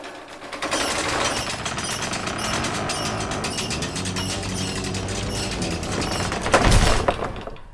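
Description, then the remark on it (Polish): A drawbridge sound effect created for the radio drama Grażyna, after Mickiewicz, directed by Jerzy Machowski, built from other effects: continuous clanking, ratcheting chain and gear mechanism grinding steadily for several seconds, with a heavier rumbling thud near the end, no voices. “to jest efekt mostu zwodzonego, który zrobiliśmy specjalnie do słuchowiska Grażyna e, według Mickiewicza w reżyserii Jerzego Machowskiego, gdzie ten most zwodzony tam kilkakrotnie się opuszcza i podnosi.”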